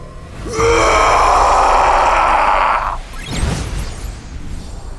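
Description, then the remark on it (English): A loud, rough roar bursts out and holds steady for over two seconds at full force, then cuts off and is followed by a short, breathy rush of noise. “A primal roar was unleashed, blowing Slash backwards, up and over the castle wall and into the moat with a splash.”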